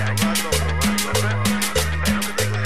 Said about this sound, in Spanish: No te hagas, es la que bailas en las fiestas de tus tíos a las 3 de la mañana. Y esta cumbia suena así.